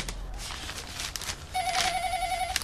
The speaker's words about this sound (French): Le bruit venait d'un réceptacle Vigilance et Propreté, en plastique vert, autrefois appelée poubelle. Au fond du réceptacle, au milieu de bouteilles vides et de journaux froissés, un vieux téléphone sonnait.